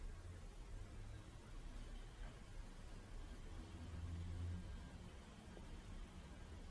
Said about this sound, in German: So wie die Autos draußen, die vorbeifahren. Die kommen und gehen, aber stören nicht weiter.